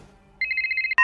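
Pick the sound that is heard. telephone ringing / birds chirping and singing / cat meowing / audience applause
telephone ringing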